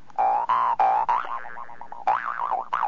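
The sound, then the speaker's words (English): A jaw harp twangs: three quick plucks, then a long wobbling, wah-like drone that bends up and down, followed by more springy twangs, with no voices. “Kazoo's ready. Jew's harp is ready.”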